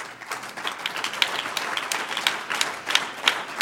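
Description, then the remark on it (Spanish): A church audience breaks into applause for the Lord, many hands clapping in a dense, steady patter with small surges and a few sharper claps standing out; no voices are heard over it. “Un aplauso al Señor.”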